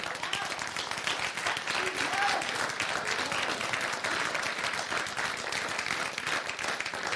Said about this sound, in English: I know you're clapping for Jesus, not for me. I know what that's all about. That's good.